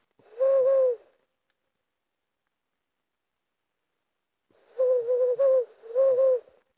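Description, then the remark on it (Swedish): A distant owl hoots, a Ural owl's deep call: one hoot, a few seconds of silence, then a longer wavering series of hoots. No talking, just the calls in a quiet setting. “Och så hör vi mitt i allt en slaguggla på avstånd.”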